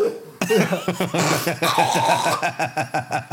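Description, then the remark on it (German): A wet, phlegmy cough and throat-hawking, as someone loudly draws up mucus in a run of rough, rhythmic bursts. “Immer diese Geräusche, gell, wenn man diesen Schleim irgendwo herzieht und du noch nicht, du, du noch nicht genau weißt, so, wo, die, wo, der, wo der herkommt.”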